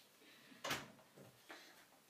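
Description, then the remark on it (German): A door being closed: one muffled thump near the middle, followed by a couple of softer clicks and rustles, fairly quiet, with no voices. “Ich gehe kurz die Tür zu machen.”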